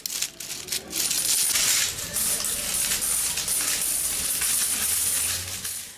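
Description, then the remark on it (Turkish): A dense, continuous jingle of coins clattering and spilling out together from a broken piggy bank in Denizli, Turkey, holding six months of savings, bright metallic clinks piling over one another for several seconds, with no voices. “Son çare kumbarayı kırdılar. İçinden 10 bin lira çıktı.”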